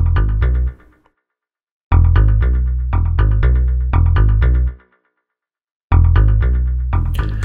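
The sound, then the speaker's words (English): A deep synth bass sequencer pattern, a soul bass synth's deep hiss preset on pressure pattern one, pulses in a steady rhythm of short, punchy repeating notes, playing loud in three runs separated by brief pauses. “And I've got this deep hiss preset here. So we'll do pressure pattern one.”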